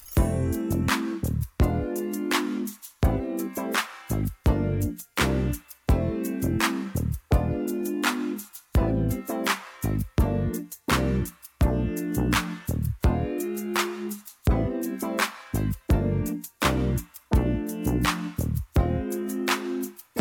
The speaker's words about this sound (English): a slow and sensual ballad that grooves with the keyboard, synth, and drum machine use